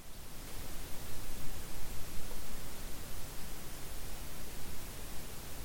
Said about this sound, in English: what you're hearing is a little bit of electrical hissing